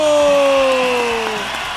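Loud, steady audience applause welcomes a host on the radio program El Show de la Tierra, with a high whistle-like tone gliding slowly downward across it before fading near the end.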